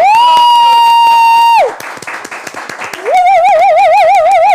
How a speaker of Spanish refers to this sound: Aplausos.